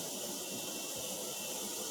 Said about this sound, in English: Oh, oh, there's the coffee machine